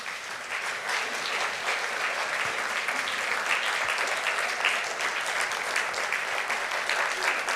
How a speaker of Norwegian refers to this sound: Nå skal vi få inn et par gjester. Så de kan dere klappe for når de går inn.